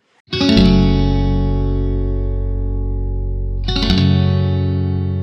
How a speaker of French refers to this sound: on écoute un, prochain extrait, c'est la chanson …